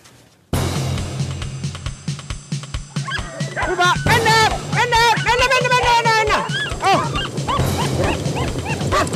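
A pack of racing sled dogs barks and yips excitedly, overlapping high-pitched yelps and whines forming a continuous, chaotic chorus after a sudden start.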